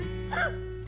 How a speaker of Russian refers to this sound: Будь здоров